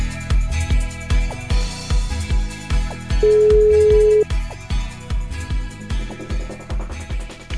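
A single steady ring tone, about a second long, sounds as a call is dialed, heard over a driving rhythmic music beat that keeps going throughout. No one speaks.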